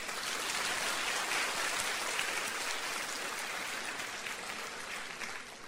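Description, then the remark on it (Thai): An audience applauds God during a Christian sermon. Dense overlapping hand claps hold an even level for several seconds, with no one speaking. “ตบมือพระเจ้าดีไหมครับ”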